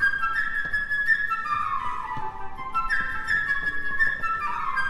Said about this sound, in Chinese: 角色乐器配置是这样的：弦乐四重奏代表彼得，双簧管代表鸭子胖胖，长笛代表小鸟。